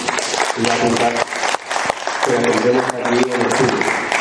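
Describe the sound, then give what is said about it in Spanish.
Loud, steady audience applause fills the whole stretch, a dense wash of clapping with voices talking or calling out over it. “Y nada, de nuevo agradeceros que estéis aquí y el aplauso no solamente es para mí, para los dos, sino también para vosotros.”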